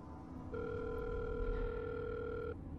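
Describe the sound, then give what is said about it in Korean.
A phone call's ringback tone sounds once, a steady electronic beep lasting about two seconds, heard clearly over a low, constant background rumble with no one speaking. “난 그냥 컨디션이 좋지 않아 잘못 들었다고 생각했지만 역시나 불안함이 느껴져 다시 아버지에게 전화를 걸었다. 그리고 다행히도 이번엔 신호가 잘 가고 있었다.”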